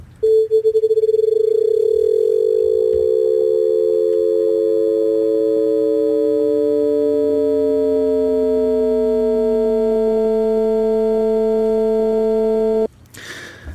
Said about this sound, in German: habe ich jetzt hier was eingebaut, nämlich die Frequenz, mit der die, ähm, mit der die Amplitude moduliert wird. Die fangen wir jetzt an von 0 bis 220 Hertz lassen wir die linear ansteigen und das braucht 10 Sekunden. Hören wir uns einfach mal an.